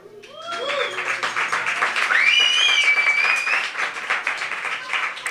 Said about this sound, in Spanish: Un aplauso para Vidal.